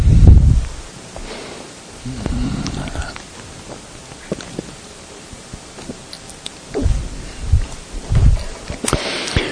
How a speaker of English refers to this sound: let me drink water here.